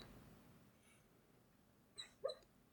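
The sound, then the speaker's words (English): A sleeping dog, dreaming, gives two brief, soft whimpering squeaks in quick succession near the end, with no talking. “I heard a weird dog noise. Yeah, he's dreaming.”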